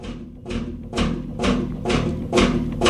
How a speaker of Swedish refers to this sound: Men en råoljemotor, den funkar i alla fall. Du kunde köra dem på ta fan, på melass.